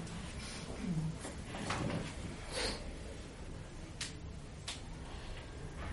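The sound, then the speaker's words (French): A steady, gritty rolling rumble of suitcase wheels over soaked paving slabs, with a few sharp clicks as they cross joints in the slabs, continuous throughout. “Vous savez, bruit de valise sous les dalles détrempées.”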